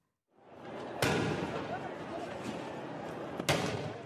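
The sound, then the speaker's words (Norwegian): Two sharp, loud stun grenade blasts, about two and a half seconds apart, fired by police at a demonstration against higher public transport prices in São Paulo, Brazil, burst over a dense crowd roar of shouting and noise in an open street. “Politiet bruker sjokkgranater mot deltakerne i en demonstrasjon i Brasils største by, Sao Paulo.”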